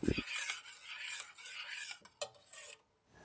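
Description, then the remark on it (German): Continuous scraping and rubbing as a utensil is stirred through thick, gel-like homemade laundry detergent in a container before it is poured into a jar, with a low thump at the start and a brief clink near the end before it falls quiet. “Ich werde es jetzt noch einmal komplett durchrühren und äh, dann einfach mal ins Glas abfüllen und ja, dann meine erste Maschine mit dem selbstgemachten Waschmittel waschen.”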